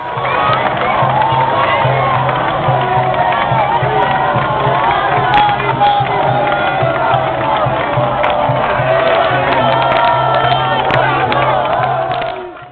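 A large football crowd erupts in loud, sustained cheering and roaring after Italy's goal for 3-0, a dense wall of shouting voices that stays at full volume throughout without fading.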